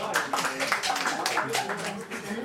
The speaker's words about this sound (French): Vous voyez pas, mais c'est encore plus gênant parce que lui, il applaudit et pas elle.